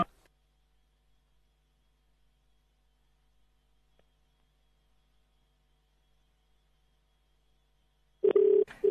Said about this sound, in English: And so we're waiting for Sam's phone to ring. And so let's see if we can raise her.